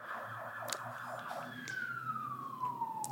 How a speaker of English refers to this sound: fire truck. Yeah, fire truck.